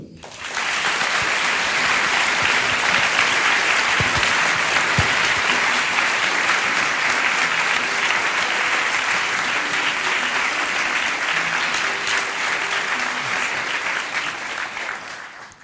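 Loud, sustained applause from a crowd, a dense wash of clapping that holds steady for about fifteen seconds before tapering slightly at the end, with no talking over it.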